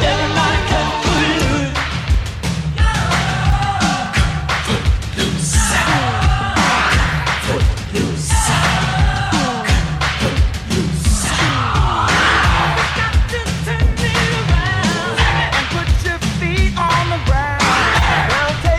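An upbeat pop rock song plays at full volume, with a driving drumbeat, heavy bass and energetic vocals over a dense band mix, steady and loud throughout.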